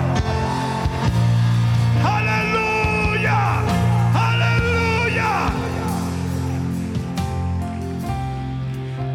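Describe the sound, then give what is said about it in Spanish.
A crowd of voices shouting and cheering in praise, loud and overlapping, rising in waves over a steady sustained keyboard chord that continues throughout. “Alguien va a tener que dar un grito de gloria.”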